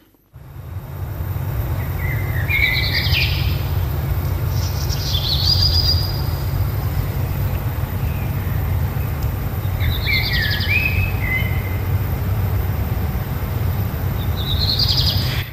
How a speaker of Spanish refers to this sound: Entonces, Mano, ¿es una paloma o es un mirlo? Yo diría que un mirlo. Así es, es un mirlo, un mirlo.